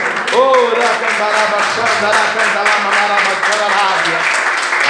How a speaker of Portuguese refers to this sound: Você crê assim, pode dar um brado de vitória. Aleluia, glória a Deus, as palmas louve ao Senhor.